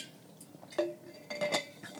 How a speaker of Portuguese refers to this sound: Vou só beber aqui um bocadinho de água antes de passar às vossas perguntas.